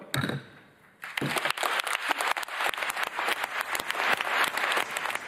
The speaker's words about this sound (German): Während wir reden, äh, hat das Plenum begonnen. Vielleicht hört man im Hintergrund das Klatschen.